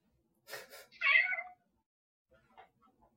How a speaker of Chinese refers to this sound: 哎呀，你的猫叫了。 对，它想出去玩，